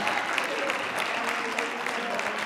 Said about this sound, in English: See, now y'all act like y'all clapping like it's lunchtime. I said praise. I'm talking about some praise.